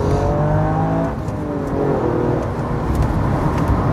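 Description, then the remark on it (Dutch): A Toyota Yaris engine revs up under acceleration, its droning pitch climbing in steady surges, fairly loud with road and cabin rumble underneath and no talking. “Hij vraagt ook echt om op zijn donder te krijgen, deze auto.”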